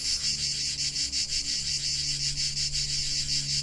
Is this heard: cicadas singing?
yes